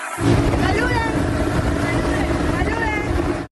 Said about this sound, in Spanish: viajando por lancha a la isla de la Tortuga, en el mar Caribe venezolano.